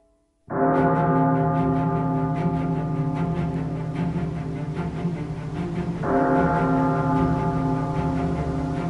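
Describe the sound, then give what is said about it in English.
The large, deep bell in the Freedom Monument tolls twice, about five seconds apart, each loud strike swelling into a long, humming resonance that rings on without fading, with no voices present. “bell in the Freedom Monument begins to toll, as if calling out to someone.”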